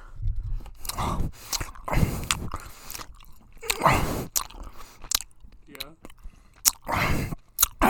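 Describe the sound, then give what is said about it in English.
Wet chewing of sticky, chewy Mike and Ike candies, with repeated smacking and squishing bites in an irregular rhythm, loud and intimate, occasional breaths between chews. “And I want to eat them.”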